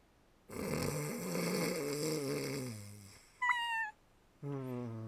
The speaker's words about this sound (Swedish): Jag tycker nästan det låter lite gulligt ändå. Liten snarkorkester. I harmoni. Synd att båda är tondöva.